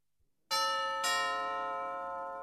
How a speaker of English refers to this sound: American and British children and teenagers go trick or treating on Halloween evening. They go from house to house in their costumes and ring doorbells.